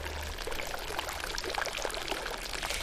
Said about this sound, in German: Erstens der Kochbrunnentempel. In diesem hübschen Pavillon, da findest du Wiesbadens bekanntesten Thermalbrunnen.